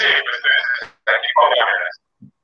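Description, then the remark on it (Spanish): Muffled, tinny voice-call speech comes through in two short bursts separated by a brief gap, with a lagging, echoing quality, as on a delayed phone or video connection. “Tenemos un delay. Tenemos Eco.”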